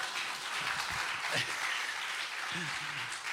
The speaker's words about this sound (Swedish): Ja, en extra applåd för det.